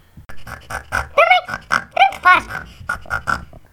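A quick, uneven run of close pig grunts and squealing oinks, a dozen or so short bursts, some rising into higher squeaks, fairly loud with no talking over them.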